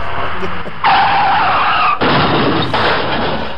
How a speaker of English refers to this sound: Speaking speaking of sound effects, I uh, I changed my uh, the sound on my computer when you hit the trash button, right? Recycle bin. When you do that, it's a screeching and then car crash.